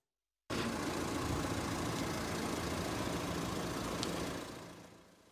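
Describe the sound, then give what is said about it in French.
A car engine idles steadily while the car stands still and does not drive, in Nancy, France. It gives a low, continuous rumble with faint vibration, holding even for several seconds before easing down slightly at the end. No one speaks. “Les automobilistes qui laissent tourner leur moteur sans rouler devront bientôt payer une amende de 135 euros.”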